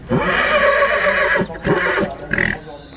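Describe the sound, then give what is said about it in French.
Tiana, a Camargue mare born in 2020 and 1.65 m tall, at the Domaine du Celtis horse breeding stand at the Salon de l'Agriculture in Bordeaux, lets out a loud whinny, a long shaky neigh that breaks into a few shorter quavering bursts before fading, with no talking. “Je me trouve au domaine du Celtis, là où il y a un élevage d'animaux avec des chevaux camargues.”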